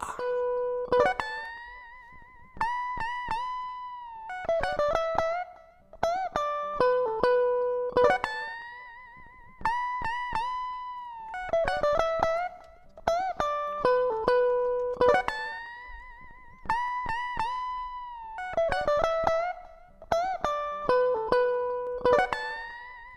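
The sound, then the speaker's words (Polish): A simple electric guitar solo played through an effects plugin: a short melodic phrase of ringing, sustained notes repeats in a steady loop, clear with no one talking. “No więc mamy tutaj fragment tej gitary, po prostu taka solóweczka, no prościutka i wystarczy.”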